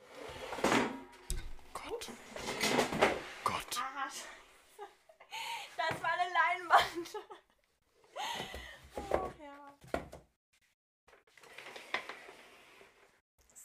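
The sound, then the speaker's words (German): A loudly creaking chair is moved around and swapped out for another chair, with intermittent creaks, clunks and scrapes, while people laugh and talk in brief bursts. “Ich kann mal gerade, soll ich gerade den Stuhl mal wechseln, bevor wir weitermachen?”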